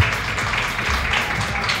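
A crowd applauds steadily, a dense wash of many hands clapping at once with no single claps standing out, holding at an even, moderate loudness throughout.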